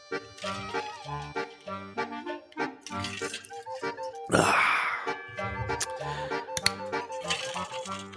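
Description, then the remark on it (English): Someone drinks water in a run of rhythmic gulps and swallows, then lets out a loud, breathy satisfied exhale partway through before more gulping follows. “Okay, on that note, once I hear a name like that, well, you know what time it is, right? Water time. Hold on.”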